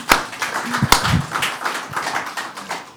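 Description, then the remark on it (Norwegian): An audience claps for the city council for bringing back school caretakers, a steady, dense patter of many hands holding at a moderate level for a few seconds, with a brief low vocal murmur early on. “Så bare kom igjen, gi dem en applaus for det.”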